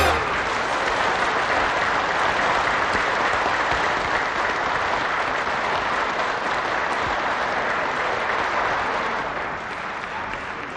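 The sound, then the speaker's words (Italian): Sustained audience applause, a dense steady wash of many hands clapping for about ten seconds, fading slightly at the very end, with no voices rising above it. “Basta, silenzio, grazie, grazie, grazie, grazie per questi applausi.”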